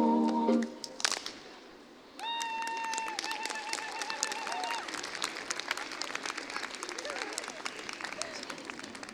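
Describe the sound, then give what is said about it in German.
An outdoor crowd on the Platz der Alten Synagoge bursts into thunderous, dense, sustained applause after a brief quieter moment. Steady clapping roars on for several seconds, with a high whistle-like tone rising above it early on. “tosender Applaus auf dem Platz der alten Synagoge und jetzt geht's weiter.”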